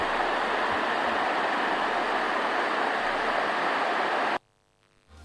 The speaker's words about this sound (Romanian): Ceva râu, nu? Râul Cerna.